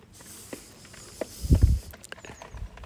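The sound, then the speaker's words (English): Chickens pecking at feed from a feeder: quick, irregular taps and scratchy patters, with a brief louder scuffle midway, and no talking. “Just listen to them all pecking away.”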